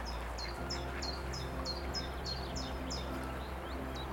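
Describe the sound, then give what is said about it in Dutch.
A mother duck with ducklings calls in a steady series of about a dozen short, high-pitched notes, evenly spaced, over a constant low outdoor rumble. “hoorden ze al, maar nou kijk, daar heeft je moeder eend met uh, jonkies.”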